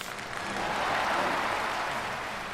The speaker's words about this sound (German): Bitte Applaus.